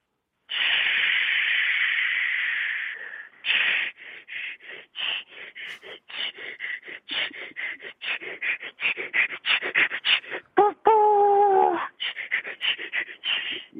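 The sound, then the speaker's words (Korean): A voice imitates a steam locomotive setting off and pulling away slowly: a long hissing release of steam, then rhythmic chuffing bursts that gradually quicken, broken briefly by a tonal whistle-like hoot near the end. “증기 기관차하고 이제 증기선 소리 한번 해보겠습니다.”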